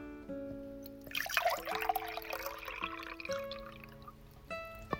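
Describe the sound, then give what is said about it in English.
A drink is poured steadily into a glass, a bright splashing trickle lasting a few seconds over a soft, sustained tonal background, with no voices. “fill my glass, and I'll tell you all that, uh, what I know about the creatures that get called leviathans.”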